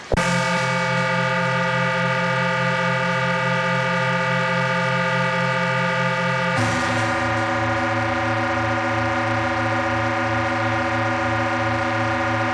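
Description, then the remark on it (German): A bassoon plays loud, low held notes on its own, one long tone sliding down to a second sustained note partway through, with a rich, buzzy reed sound. “Der Großvater durch das Fagott.”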